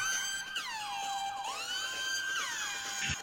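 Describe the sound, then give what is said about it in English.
A phone alarm tone blares with a wailing, siren-like sweep, its bright pitch gliding down and back up in repeating cycles, loud and continuous with no talking. “Oh, and that's my fucking alarm.”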